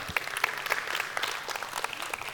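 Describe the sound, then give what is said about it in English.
An audience applauds steadily, a dense wash of many overlapping claps with sharper individual claps popping out, sustained at moderate loudness for a couple of seconds. “I'm not sure if I got applauded for taking my wife on a trip, uh, for being home, or for celebrating 35 years uh, of marriage, but I don't care.”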